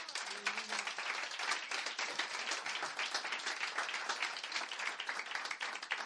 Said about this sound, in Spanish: ¿Cuántos dicen amén? Dale un aplauso al Rey que vive.